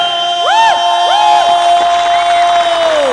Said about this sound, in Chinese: 给掌声